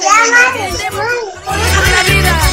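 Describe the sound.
High-pitched children's voices chatter and call out over one another, lively and continuous, with a steady low rumble underneath throughout.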